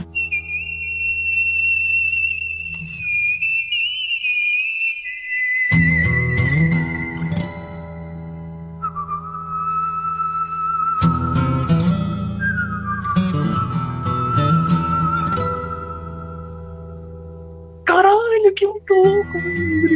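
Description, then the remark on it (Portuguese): A whistled melody of long, clear held notes stepping between pitches, joined after a few seconds by a low, full instrumental backing that continues beneath the whistling, fairly loud; music from a Capcom video game soundtrack. “o assobio da música do Yasha”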